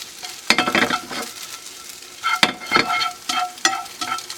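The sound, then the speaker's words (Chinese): Eggs stir-fried in a pan, setting as they cook, until their surface turns slightly golden: a steady sizzle broken by sharp, scraping bursts as the spatula tosses them, several irregular stirs in quick succession, with no talking. “我们要炒到蛋的表面呢稍微带一点点的金黄色，这种蛋呢才会是最好吃的。好，我们稍微让它拌炒一下。”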